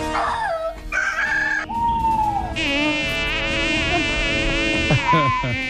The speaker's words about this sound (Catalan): Això són sons d'animals que hi ha dins dels boscos.